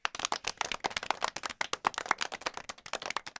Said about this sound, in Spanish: Y esas cosas logró Nolan y Hoyte y todo el equipo técnico de los efectos especiales detrás. Así que para ellos vaya este aplauso.